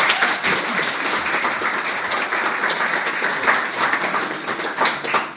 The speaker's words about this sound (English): Give her a round of applause.